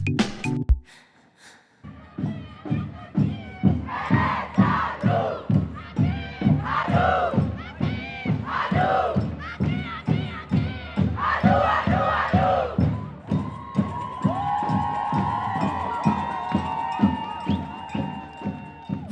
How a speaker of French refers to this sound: reconnaissez ce doux son de manif ces slogans scandés à tue-tête, tels des incantations à la puissance presque magique, c'est le son de la Dyke March parisienne qui a eu lieu le 25 avril dernier.